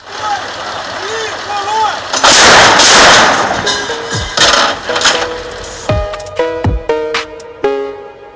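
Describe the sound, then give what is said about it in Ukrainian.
An artillery launcher, fired by its crew in body armor on the command "Fire", lets off a rapid series of heavy, roaring blasts, one after another, followed by ringing, whining tones as the volley dies down. Faint voices can be heard beforehand. “Навівшися, вони повертаються до своєї установки, вдягають бронежилети та лунає команда Вогонь.”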